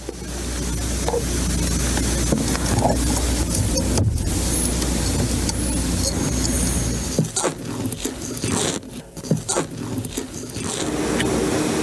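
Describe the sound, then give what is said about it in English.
Sea turtles in captivity vocalizing, recorded with microphones by a University of Zurich researcher, in a noisy, hissing recording: faint short chirps early on, then a run of scratchy clicks and scrapes toward the end over a steady low rumble. “Yep, that was the sound of turtles.”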